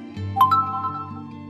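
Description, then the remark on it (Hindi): A bright electronic message notification tone chimes twice in quick succession as a video message arrives on Inspector Arjun's phone, ringing out clearly over a low, steady musical drone that continues underneath. “इस घटना के करीब तीन साल बाद इंस्पेक्टर अर्जुन के फोन पर एक वीडियो मैसेज आता है”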